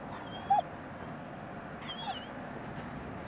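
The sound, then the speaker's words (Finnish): A young German shepherd, about a year old, whimpers in two thin, high-pitched whines, one early and one later, with a brief sharp yip between them, over a steady low background hum, during border guard dog training exercises. “Kyse on tuollaisesta vuoden ikäisestä saksanpaimen koirasta.”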